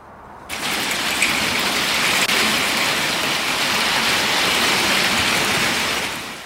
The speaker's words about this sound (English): So pretty intense rain and hail in isolated pockets as these cells rolled through.